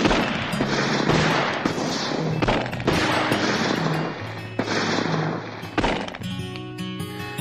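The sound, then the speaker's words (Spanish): Loud bursts of gunfire crackle in rapid succession, separated by brief pauses, as a group of men fire more rounds into the body of José Smith, with a low musical drone underneath and sustained tones rising near the end. “Borges se movió al costado y vio a un grupo de sus camaradas disparar más rondas de balazos en el cuerpo inerte de José.”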